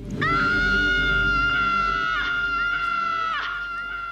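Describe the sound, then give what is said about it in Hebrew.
A boy, the character Bastian, lets out one long, loud, high-pitched scream in the attic of his school. The scream holds steady for about four seconds, wavering briefly near the end, over a low background rumble. “בזמן השיחה שלו עם מורלה, אנחנו פתאום שומעים צעקה.”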